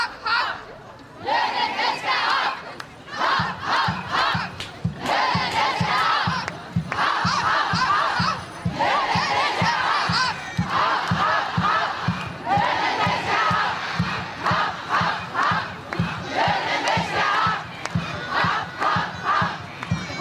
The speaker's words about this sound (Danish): her var det lyden fra lørdagens demonstration.